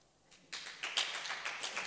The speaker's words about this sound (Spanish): Amén. Dáselo fuerte ese aplauso.